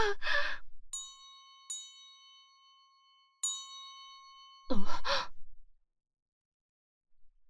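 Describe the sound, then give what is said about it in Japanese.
A magic bell, rung to summon someone, rings out three times with clear, shimmering metallic tones that linger after each strike. A breathy sigh comes before the chimes and a sharp gasp follows them. “この音は魔法のベルかあいつが我を呼んでいる”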